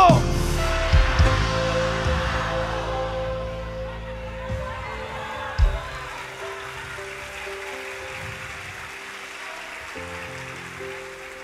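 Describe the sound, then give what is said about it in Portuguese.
An audience erupts in a loud, massed shout that gradually subsides into a lingering wash of crowd noise, with steady sustained keyboard tones held underneath throughout. “você não enterrou, você plantou, dá um grito bem alto, não está enterrado, está plantado.”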